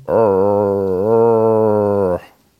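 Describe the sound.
A person imitates a red deer's roar: one long, drawn-out, low and loud bellow lasting about two seconds, rich and buzzy in tone, with a slight dip in pitch midway before cutting off.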